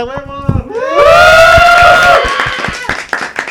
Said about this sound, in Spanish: Y nuestro invitado especial, por favor, muchachos, un aplauso, ¿verdad? Espérense, un aplauso fuerte aparte porque hoy es su cumpleaños.